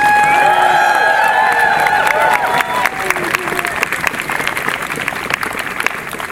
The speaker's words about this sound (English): Let's show our appreciation with a round of applause for all these volunteers and supporters.